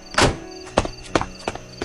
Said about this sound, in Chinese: 摔门声震落了祝海棠的眼泪